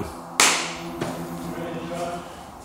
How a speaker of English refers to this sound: Alright. Podcast three, take two. Clap in his ear hole.